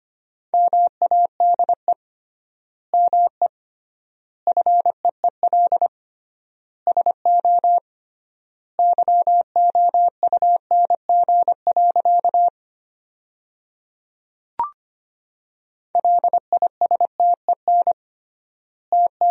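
Morse code sent as a single steady, mid-pitched beep, keyed in quick dots and dashes at 25 words per minute, spelling sentences made from the 400 most common words, with triple word spacing giving clear pauses between words. It sounds clean, with no voices.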